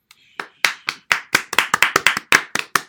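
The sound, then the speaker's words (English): An applause sound effect: about a dozen sharp, loud hand claps in a quick, slightly uneven rhythm, speeding up toward the end, with no voices over it. “Hand applause in.”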